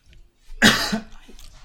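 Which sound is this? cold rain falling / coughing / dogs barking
coughing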